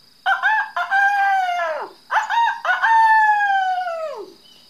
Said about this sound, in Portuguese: Esse dia, como todos os dias, eu havia acordado com o canto do galo.